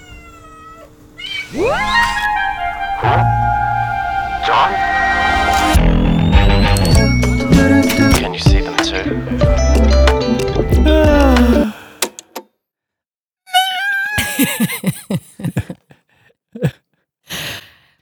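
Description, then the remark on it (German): Several cats meow and yowl loudly in overlapping, drawn-out cries, with some rattling clatter underneath, then a pause before a few more scattered, higher meows. “Wo sind wir hier? Bestimmt nicht bei mir zu Hause. Tierheim? Und worüber sprechen wir? Übers Jaulen.”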